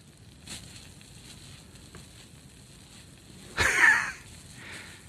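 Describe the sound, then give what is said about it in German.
Water running through in an ASMR recording: a faint steady hiss, then a short, loud rushing gush near the end before it settles back down. No one speaks. “So, so hört sich das ungefähr an so. Dass das Wasser durchläuft.”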